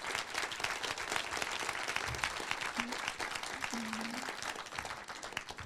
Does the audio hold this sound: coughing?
no